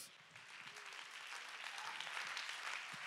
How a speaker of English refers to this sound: Oh, clap your hands and give God the praise.